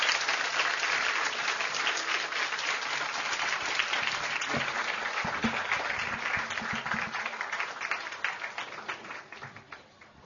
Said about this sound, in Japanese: 大きな拍手をどうぞ。はい、どうもありがとうございました。